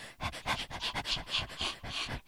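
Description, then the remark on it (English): Someone imitates a dog panting into a microphone: quick, rhythmic breathy huffs, about ten in a row, fairly loud with no talking. “Yes, me it breathing will. heavily in the background like a dog.”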